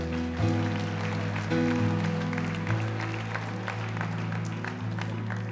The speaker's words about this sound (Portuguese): Ele diz assim: Aplauda-se por esse ministério abençoadésimo.